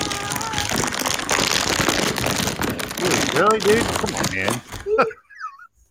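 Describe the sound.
Loud plastic bag rustling crackles almost continuously for several seconds among boxes, with a man talking briefly over it before the crinkling stops and a brief quiet remains.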